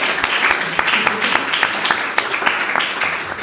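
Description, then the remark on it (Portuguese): A group applauds steadily for a few seconds, a dense patter of overlapping claps with sharper individual hits standing out, fairly loud throughout with no clear pause. “Sinto que este é o momento de bater palmas.”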